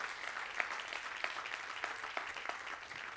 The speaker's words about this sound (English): Clap your hands if you've received this grace.